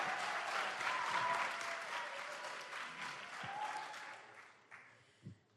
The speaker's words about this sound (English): Round of applause. yeah, guys.